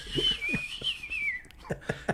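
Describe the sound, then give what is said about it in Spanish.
A person whistles a single sustained, slightly wavering note for about a second, imitating a whistling character from Guardians of the Galaxy, then it breaks off into three sharp clicking sounds. “Chifla como este güey de, de John Doe.”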